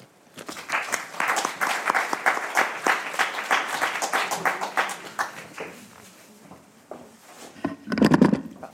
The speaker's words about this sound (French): je voulais simplement euh, les applaudir encore une fois avec vous et les remercier encore une fois.